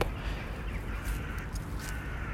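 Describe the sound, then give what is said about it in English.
Several crows caw in short, scattered bursts over a steady outdoor rumble and hiss. No one speaks. “And what the weather is reminding me now, particularly right at this moment as I hear the birds stir up.”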